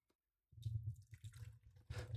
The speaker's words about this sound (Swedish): Och korkar upp en Carlsberg.